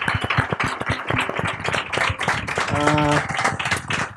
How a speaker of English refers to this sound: So, to respect all of our time, I would uh, give big applause to all to the panelists.